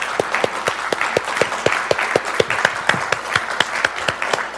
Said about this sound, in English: but would everybody, would you just join me in thanking, give a round of applause to everyone who served tons of hours this week in that ministry?